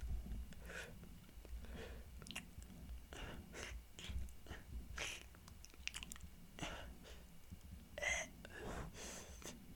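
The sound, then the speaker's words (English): A voice imitates a plunger against a wall with a series of wet, airy sucking and smacking mouth sounds, repeated in an irregular rhythm over about ten seconds, with no speech. “Why do you sound like a plunger that's against the wall? That's not anything. That's just air.”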